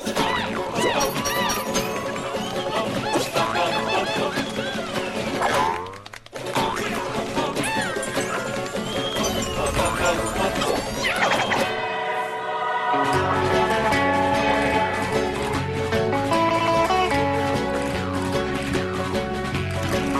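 Lively, busy music from the video game Rayman Origins, created by Michel Ancel, plays loud and continuous, with a brief dropout near six seconds and a switch around twelve seconds to a bouncier, steady rhythmic section. No one speaks.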